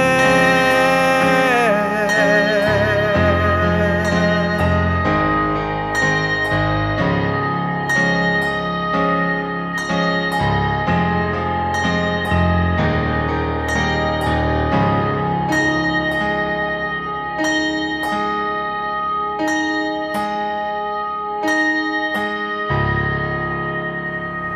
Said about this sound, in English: He's a talented soul R&B pop singer-songwriter whose sound is fresh, pure and honest. And that track sounding absolutely fantastic.